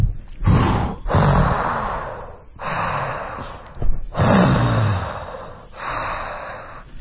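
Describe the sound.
A person imitates a scuba diver's breathing through a regulator: four long, loud, raspy hissing breaths in a steady rhythm, separated by brief pauses.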